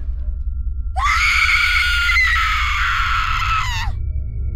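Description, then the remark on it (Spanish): A woman lets out one long, piercing scream lasting about three seconds, loud and sustained with a slight wavering, over a steady low rumble of background noise. “Entonces empezaba a oír gritos de una mujer.”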